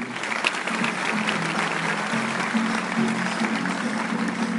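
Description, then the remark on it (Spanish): An audience applauds steadily for several seconds, a dense, even wash of many hands clapping at a constant loudness with no voices over it. “aplauso.”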